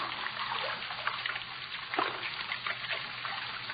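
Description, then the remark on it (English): Steady running water trickles and burbles throughout, a continuous wash of sound with small splashy gurgles popping up here and there, with no voices. “That sound. Running water. Over this way.”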